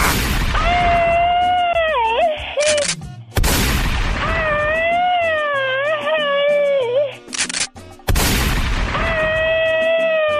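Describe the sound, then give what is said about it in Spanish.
Loud, rapid bursts of gunfire sound effects come in three barrages, each opening with a sharp boom and followed by a wavering whistling tone over the crackling shots. “Que hace este tiempo ya no me das balazos.”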